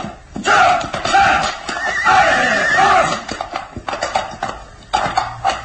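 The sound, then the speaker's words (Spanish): A horse lets out a loud, drawn-out, shrill whinny lasting a few seconds, followed by snorting and a few clattering hoof sounds, as its rider tugs the reins and urges it to climb over rocks. “Tira de las riendas del caballo con nerviosismo y enfado.”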